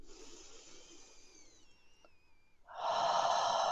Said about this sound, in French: Et ce que je vais faire après, c'est que je vais connecter en fait cette respiration. Et je vais supprimer la pause. Donc je vais inspirer.